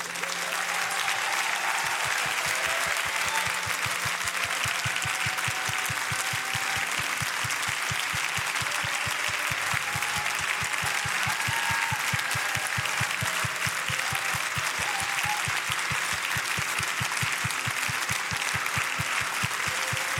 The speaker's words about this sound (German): einen richtig großen Applaus geben.